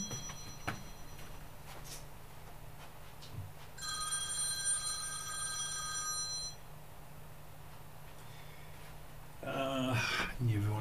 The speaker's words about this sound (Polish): Ach, kurczę, telefon mi dzwoni.